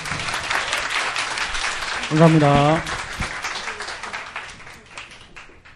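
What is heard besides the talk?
audience applause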